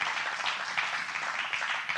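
A steady round of applause from a church audience for the guests at the service, dense overlapping claps forming a continuous crackling wash at even loudness throughout, with no voices over it.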